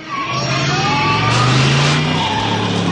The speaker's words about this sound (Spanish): El DeLorean retrocede a toda velocidad, hace un trompo y avanza por el parking.